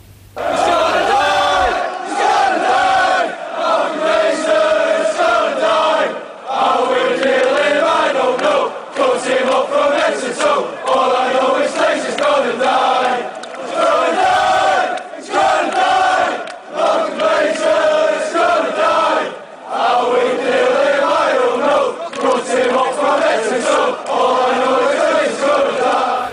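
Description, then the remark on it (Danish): A large crowd of Manchester United fans chants a protest song about club owner Malcolm Glazer in unison, loud and sustained, with a rhythmic rising and falling melody repeating over about 26 seconds. “De har endda lavet en sang om ham.”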